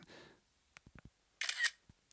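A phone camera app's simulated shutter click, sounding like a normal film camera, a crisp mechanical snap with a brief whirring burst, preceded by a few soft handling taps, fairly loud with no talking.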